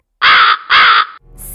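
A crow caws twice in quick succession, loud, each call harsh and drawn out, followed by a faint hiss afterward.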